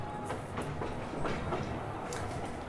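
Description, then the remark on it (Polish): A moving train's rhythmic clatter, wheels clacking at a steady pace over a continuous low rumble, heard from inside a passenger compartment as the train nears New York, with no voices. “Jesteście jeszcze w pociągu, jedziecie.”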